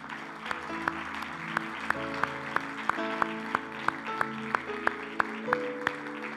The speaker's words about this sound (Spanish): ¿Podemos darle un aplauso a Dios que es tan bueno?